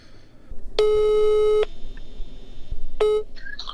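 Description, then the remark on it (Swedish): A steady electronic telephone tone sounds for nearly a second as a phone call is placed, then stops; after a pause, a second short burst of the same tone follows, with faint background noise throughout. “Så jag tänkte faktiskt att vi ska ringa”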